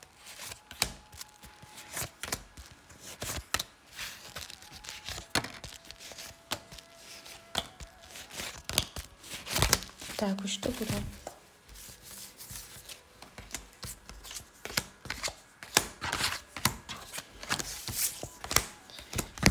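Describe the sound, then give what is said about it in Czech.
Tarot cards are shuffled for a couple's tarot reading in a steady stream of crisp, rapid riffling and flicking clicks for about twenty seconds, with a few quiet spoken words partway through. “A já už se dívám na vaši fotku, míchám u toho karty a my se spolu podíváme, co nám Tarot poví o vás dvou.”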